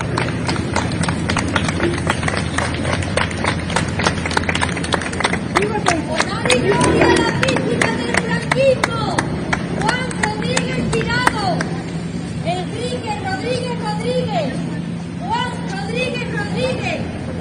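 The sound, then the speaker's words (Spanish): Relatives of Keipo clap in scattered, uneven bursts as the remains are carried out, amid steady murmuring voices; the sharp claps thin out after several seconds, leaving mostly background chatter and movement. “Los familiares de Keipo aplaudieron a la salida de los restos”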